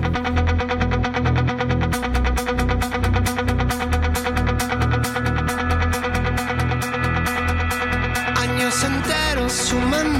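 A loud pop song plays throughout with a steady, punchy beat and full instrumentation; a sung vocal line seems to come in near the end.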